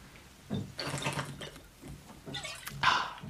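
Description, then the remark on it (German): A few wet sips and swallows of drinking water after a toast, in quick succession, with soft liquid sloshing and mouth noises, no one talking. “Ich trinke heute nur Wasser zum Schluck zum Sonntag in der guten alten, für mich noch lebenden Fastenzeit der Adventszeit.”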